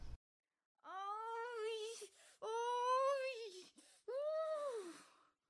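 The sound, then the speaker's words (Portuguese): At night, a woman's voice lets out three long, drawn-out moaning wails, each rising and falling in pitch with short breaths between, loud with no other sounds. “Que gemido foi esse?”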